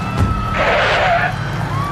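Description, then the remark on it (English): A military officer's Jeep's tires screech to a stop, a harsh high-pitched squeal swelling briefly over a steady engine rumble, then fading as the vehicle halts. “A well decorated officer with speckles on his epaulettes is looking through binoculars as his Jeep screeches to a stop.”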